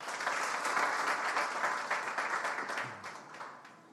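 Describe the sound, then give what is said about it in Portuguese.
An audience bursts into sustained applause, a dense wash of many hands clapping that holds steady before gradually thinning and fading toward the end. “Dê um aplauso para ele, pode se assentar.”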